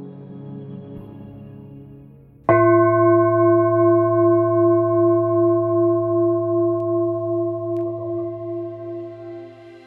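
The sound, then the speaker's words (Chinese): A healing singing bowl is struck once at the start of a guided throat-chakra meditation and rings out with a loud, sustained shimmering tone, its steady harmonics pulsing gently as it slowly fades, following a softer resonant hum beforehand. “好，我们透过颂钵的声音，慢慢的把所有的注意力回到自己的内心。”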